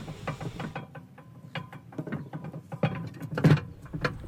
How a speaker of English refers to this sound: Well, if anyone's curious, it's not a woodpecker that's in the background. It's some people tinkering with a lock mechanism. But uh, as this is outdoors, you know, this is the way it goes.